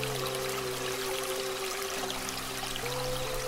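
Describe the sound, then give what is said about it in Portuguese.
Water pours steadily from a fountain in a continuous, even splashing stream, mixed with soft sustained low tones humming underneath, with no voices. “A deusa te convida a banhar-se nas águas da fonte.”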